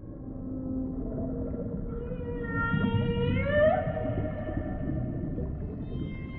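Whale song: a long, tonal moan that slowly rises and bends in pitch over a deep, steady underwater rumble, heard alone with no talking.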